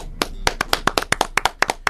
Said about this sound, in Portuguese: Aliás, vamos mandar um aplauso pro Luiz Adriano aí, né?